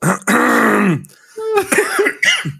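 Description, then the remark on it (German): A loud throat clearing by a person with something in their throat: a long rasping rumble lasting nearly a second, followed after a short pause by a few shorter guttural vocal sounds, with no words spoken. “Ähm, ja die, die, haben sich schon beschwert, dass ich mir immer so viel räusper. Ich habe was im Hals, deswegen ist das gerade mhm.”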